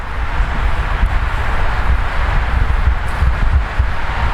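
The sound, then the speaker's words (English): Steady, loud wind buffets an outdoor microphone, producing a continuous rumbling roar with gusty low thumps and a broad hiss throughout, with no one speaking. “Um, hopefully you can hear me all right. It's a little windy.”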